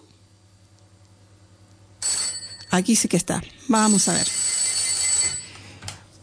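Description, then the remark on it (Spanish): A phone rings with a bright, steady electronic trill starting partway through, continuing under a man speaking briefly. “esta debe ser una amiga que, nos había dicho que sí que llamaba eh, y a ver que, que si insiste, ¿no? A ver si le decimos que venga otra vez al teléfono.”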